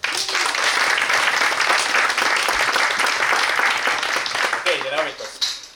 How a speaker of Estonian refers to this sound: teeme palun suure aplausi talle